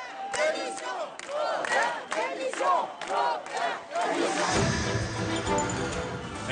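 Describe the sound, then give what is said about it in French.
A large crowd of protesters on a white march in Marseille, gathered under the windows of mayor Jean-Claude Godin to demand his departure, chants in loud rhythmic bursts, voices rising and falling together, then dissolves into a dense, noisy roar of shouting. “Les participants à cette marche blanche sont même venus sous ses fenêtres demander son départ.”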